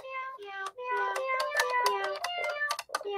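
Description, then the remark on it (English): A battery-powered toy cat piano plays a quick melody on its cat meow sample voice, one of its five synth voices. The pitched meows step up and down in a bouncy rhythm, fairly loud, with no talking. “One of them is the, the, the famous cat sample one.”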